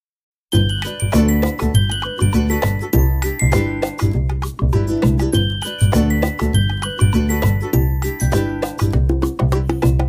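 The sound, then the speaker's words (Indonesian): Bells ring continuously in a steady, rhythmic pattern with bright overlapping chimes and a deep resonant hum underneath, loud, with no talking. “konsepnya bel konsepnya lonceng jangan-jangan jangan-jangan jeng jadi nggak serem maaf”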